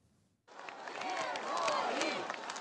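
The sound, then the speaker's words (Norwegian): A crowd of pro-Russian demonstrators surrounding a jail in Odessa, Ukraine, erupts into loud, sustained cheering as detained activists walk out, after a brief quiet moment. Overlapping shouts and whoops rise and fall in a dense wall of voices. “Arrestantene går ut av arresten til stor jubel.”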